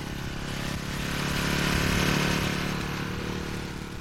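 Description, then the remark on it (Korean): A mail carrier's small motorcycle drones past in front of an ancestral shrine hall around 3 o'clock, swelling to a peak midway and fading slightly as it moves on, with a steady low rumble and no voices. “매미 소리가 멈추는가 싶더니 우편 배달부의 오토바이가 지나갔다.”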